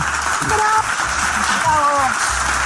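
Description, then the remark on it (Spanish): Steady, dense applause fills the whole stretch as a continuous hiss of many clapping hands, with voices calling out over it now and then. “estos aplausos son porque todo este episodio se gestó en pim pam pum.”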